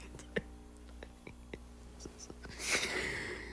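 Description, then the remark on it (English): A woman types on a keyboard: soft, irregular clicks, fairly quiet, over a steady low hum, ending in a brief burst of breathy rustling. “She is typing and I am talking.”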